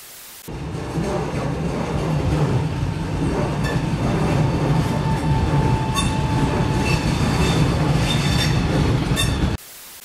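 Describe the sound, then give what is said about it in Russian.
A passenger train in Italy rolls along the rails with a steady, low rumble, faint metallic wheel squeals and clatter threading through for about nine seconds, with no voices. “Отличная штука есть в итальянских поездах.”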